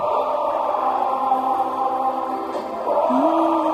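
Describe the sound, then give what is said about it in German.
A huge stadium crowd at a Liverpool football match sings a football anthem together, a dense, sustained wall of voices holding long notes at steady volume, with a slight rise in pitch near the end. “auch dieser Liverpool-Ausschnitt zum Beispiel mit You'll Never Walk Alone”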